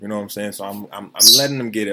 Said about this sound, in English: If you hear our bird in the background, that's Tango. Of course, he wants his his 15 minutes.